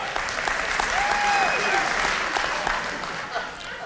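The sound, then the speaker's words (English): An audience claps steadily for several seconds after a correct answer in a quiz, a dense, even patter of many hands that holds loud and then eases slightly toward the end, with faint voices mixed in. “All right, I forgot to say, the kids are gonna love your applause, but if we applause for all 20 questions, it might take up the entire time.”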